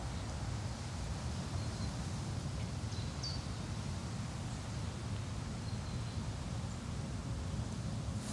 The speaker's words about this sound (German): Gibt es eigentlich was Cooleres und Entspannenderes als die Geräusche des Waldes? Ich glaube nicht.